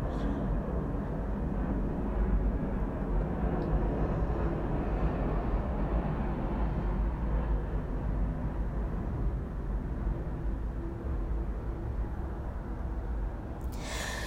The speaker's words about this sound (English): and I swear I don't even live well, I kind of do. It's not like I'm like next door to an airport, but like I live on the airport path so like planes always fly overhead and it kind of sucks when I do my podcast